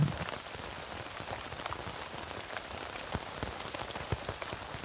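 Steady rain patters on a tent, a dense, continuous hiss of drops with scattered sharper taps, even in loudness throughout and with no voices.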